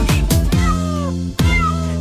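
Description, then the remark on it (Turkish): Two drawn-out cat meows, the cats of Ali Baba's farm in a children's song, each sliding down in pitch, sound over a bright, steady musical backing with plucked note attacks. The meows are clear and fairly loud, spaced about a second apart. “Diye miyavlar çiftliğinde Ali Baba'nın”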